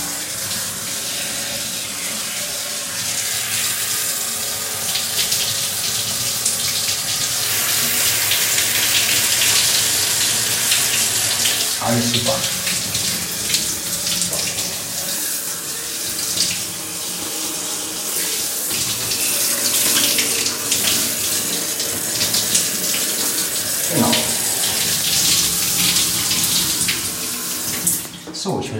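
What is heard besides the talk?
shower water running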